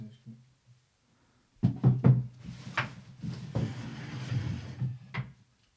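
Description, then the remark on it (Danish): An office chair being swapped for another and moved: a quick series of wooden knocks and clunks, then a few seconds of shuffling, scraping handling noise with a final soft bump. “Jeg kan forestille mig, at jeg har en ekstra kontorstol på det gamle, det der komikerkontor. Jeg tager lige en anden.”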